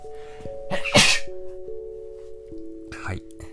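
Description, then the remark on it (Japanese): A sharp sneeze, brought on by pollen in the air, bursts out near the start, followed a couple of seconds later by a second, softer sneeze, with steady sustained tones humming in the background. “花粉がちょっと飛んでるみたいでくしゃみをしましたが”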